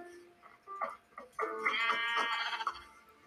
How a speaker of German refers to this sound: Da ist ein Schaf, das musst du, äh, brauchst du, ja.